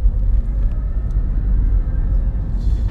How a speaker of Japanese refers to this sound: まあちょっとドライブをしながら収録しようという趣旨でして今ちょっと私1人で運転中ドライブ中でございますまあ十分安全には配慮しながらやるつもりではありますが